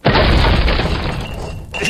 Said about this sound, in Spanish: ¡Lo escuché! ¡Escuché el cañonazo!